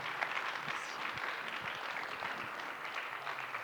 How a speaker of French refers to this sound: Et réjouissons-nous ce matin avec une bonne main de l'acclamation au Seigneur. Alléluia! Alléluia! Amen. Amen.